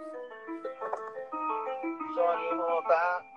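A bright, tinkling ice cream truck jingle plays a bouncy melody of short stepped notes, steady for a few seconds, with no talking over it.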